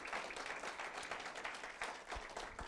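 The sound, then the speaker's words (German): An audience at a morning gathering applauds the people watching from home or on the go, a dense, steady wash of many hands clapping at once with no individual claps standing out, holding at an even level throughout. “Geben wir den Menschen bitte zu Hause oder unterwegs einen kräftigen Applaus.”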